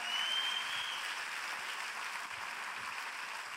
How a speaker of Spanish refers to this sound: Ahora dale un fuerte aplauso al Rey de Gloria.